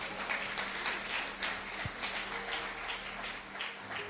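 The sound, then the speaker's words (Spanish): A crowd applauds steadily for about four seconds, a dense wash of many hands clapping at once with no voices rising above it. “¿Cuántos aplauden su nombre?”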